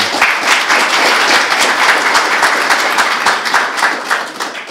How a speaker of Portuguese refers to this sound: Eu peço a salva de palmas para ele, por favor.